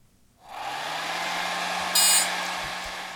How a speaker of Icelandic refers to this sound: Hárblásari. Það er hárblásari, vel gerst.